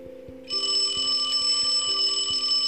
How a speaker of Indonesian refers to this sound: Tidak berapa lama, telepon rumah Bobo pun berbunyi.